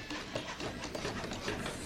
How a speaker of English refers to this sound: 64 hands building a house for the homeless